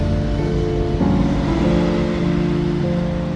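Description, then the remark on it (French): A steady roar of city traffic on an avenue with three lanes each way, a low engine hum running underneath, cars passing continuously as people head to work, and no voices. “J'attends devant, je regarde les voitures passer, tous les gens qui vont au travail, qui ont l'air assez pressés.”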